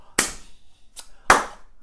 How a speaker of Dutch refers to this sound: Dan ging ze in de handen klappen. Ja, zo.